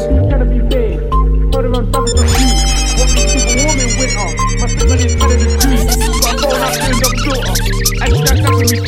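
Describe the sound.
A UK drill beat opens with deep sliding bass, crisp rapid hi-hats and a bright melodic synth line, loud and steady throughout, with a voice rapping over the track.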